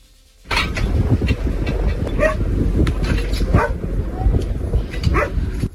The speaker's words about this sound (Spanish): Quédate, con el punto donde está ladrando. El punto exacto. Quédate con el punto donde está ladrando. Claro, lo hemos dicho. Primero entran los perros y si detectan a alguien con vida, empiezan a ladrar.